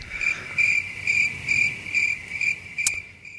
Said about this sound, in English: I was going to say, I hope it's crickets.